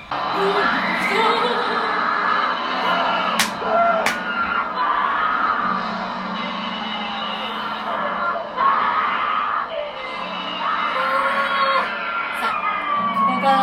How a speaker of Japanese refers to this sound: もうこのずっと悲鳴悲鳴のターンですここからキャーキャー